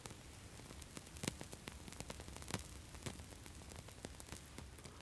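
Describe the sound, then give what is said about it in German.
Faint, irregular crackling from a small piece of amber set alight to test whether it burns, with sharp little pops and ticks scattered over a soft hiss. It sounds quiet, with no voices. “Man hört vielleicht ein wenig das Knistern.”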